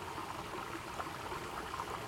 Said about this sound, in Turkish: O anda tilki köyün çeşmesinde akan suyun sesini duymuş. Şırıl, şırıl akan suyun sesi.